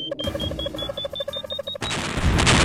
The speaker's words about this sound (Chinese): 怎么突然爆炸了？啊！我这是在哪儿啊？我记得我们的飞船突然就爆炸了。